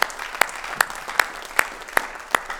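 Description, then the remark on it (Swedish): Audience applause given to the Lord: a steady wash of many hands clapping, punctuated by sharp, regular claps about every half second, giving it a rhythmic, almost in-unison beat. No voices are heard. “Ja, vi ger Herren en applåd för det, det är bra.”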